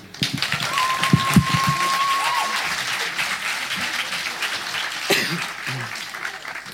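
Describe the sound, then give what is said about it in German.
An audience at a slam event breaks into steady applause for a performer, a dense wash of many hands clapping that holds for several seconds, with a brief whistle early on and a few low voice murmurs underneath. “Na dann, viel Spaß und einen kleinen Applaus für ihn doch auch bitte.”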